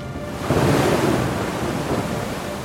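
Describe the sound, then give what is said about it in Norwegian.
Ocean waves churn in a steady, broad wash of surf, swelling louder after a brief moment and then rolling on at an even, fairly loud level with no voices. “Så ble den firt forsiktig ned i bølgene.”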